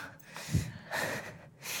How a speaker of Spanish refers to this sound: Déjenme que voy a beber un traguito de agua.